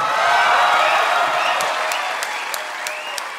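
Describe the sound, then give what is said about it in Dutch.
An audience applauds the evening's winner steadily, a dense wash of many hands clapping at full volume that holds for a few seconds, with a few sharper individual claps standing out near the end. “Dat was met veel klappen. Dat was met veel applausen al.”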